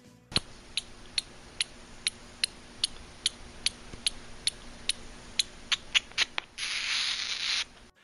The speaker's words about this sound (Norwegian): Den lille brune flaggermusa. Sånn høres den ut.